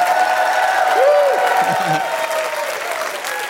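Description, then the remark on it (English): Steady, dense applause from an audience voting by clapping for the evening's acts, with scattered cheers and whoops rising over it, holding at a loud, even level throughout before easing off slightly near the end. “All right, let, us do a nice little throat vote because I think we should all clap.”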